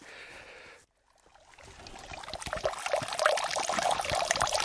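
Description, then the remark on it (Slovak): Water trickles and splashes steadily from a small spring on the way to the chapel of Saint Vendelin, a continuous bright babbling that builds after a brief moment of near silence, fairly loud, with no voices. “To ešte nie sme pri kaplnke svätého Vendelina, ale počujete tu čurkať vodu z takého pramienka.”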